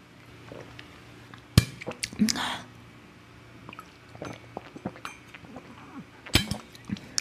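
Someone drinks water from a glass: a sharp clink as the glass is lifted, soft sips and swallows with small rustles, then another clink as it is set down.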